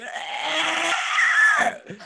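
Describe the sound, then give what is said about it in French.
A person voices the scream of a humanoid monster with empty eyes as it lifts its head and screams: one long, raspy, strained shriek held for nearly two seconds, loud, then a brief guttural tail as it breaks off. “Ses yeux sont vides et il, il se lève la tête vers vous puis il crie.”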